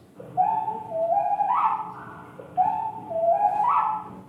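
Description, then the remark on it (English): A slowed-down whippoorwill call, heard twice in a row: each phrase is a deep, drawn-out series of five stepped whistling notes, clear with no voices. “When slowed down, this becomes a five-note phrase.”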